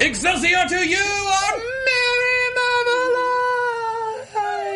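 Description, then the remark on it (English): A voice imitates a man falling off a building, stretching words into a long, loud, wavering wail that swoops at first and then holds a high, slowly sinking tone. “That's the sound of a man falling off of a building.”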